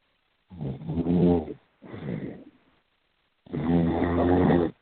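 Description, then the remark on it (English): Three loud snores: a long rattling breath, a shorter quieter one, then another long rumbling snore after a brief pause, with no talking. “sounds like sleep.”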